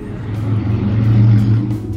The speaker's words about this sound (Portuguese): Mas vocês ouviram a moto passando?